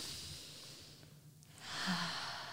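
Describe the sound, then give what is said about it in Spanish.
A slow, deliberate deep breath: a long airy inhale, a brief pause, then a fuller, louder exhale, with no talking. “y ojalá nos acompañen quienes nos escuchan, pues tomo una respiración.”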